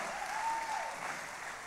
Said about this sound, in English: Y'all give Jesus a clap right quick.